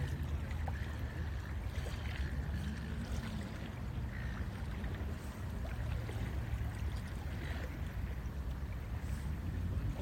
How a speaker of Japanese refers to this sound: あ、波の音聞こえます波の音聞こえますね。ちょっと波、あのー、まあ、入り江なんでね、波はないんですけども、ちょっと波打ってるので、音は聞こえてます。